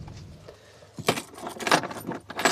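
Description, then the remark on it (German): A bunch of keys jangles as it is put away, starting after a quiet moment with bright metallic clinks that rattle on for over a second, with a faint engine-like hum underneath. “Schlüssel weg”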